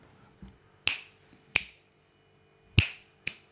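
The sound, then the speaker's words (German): Four sharp, crisp finger snaps ring out one after another at an uneven pace, loud, with a fainter snap just before them and no talking. “Kannst du laut schnipsen?”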